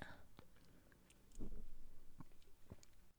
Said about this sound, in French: Prendre une gorgée de bière sans alcool.